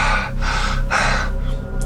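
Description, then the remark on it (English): A voice imitates panting: three or four sharp, breathy huffs in quick rhythmic succession, fairly loud, with no words spoken. “as they're talking there's sort of rhythmic sort of sound sort of pops into your head this sort of it sounds like panting this sort of”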